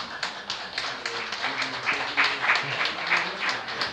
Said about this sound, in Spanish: Un aplauso para ellos.